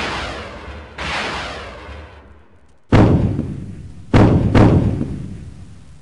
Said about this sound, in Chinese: 只见入口处又出现了一架捕食者无人机，块头比之前那个还要大出许多。它的炮台已经开始喷吐火舌了。